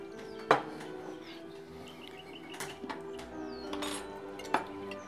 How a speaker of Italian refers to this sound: Tu cosa hai fatto oggi, piccolo amico pennuto?